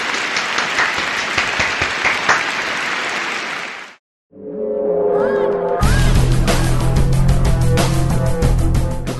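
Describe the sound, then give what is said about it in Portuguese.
A loud burst of applause for Valve, dense steady clapping for about four seconds, stops abruptly. After a brief silence, music with sustained tones begins, and a heavier beat joins shortly after. “Palmas, Palmas para, para a Valve.”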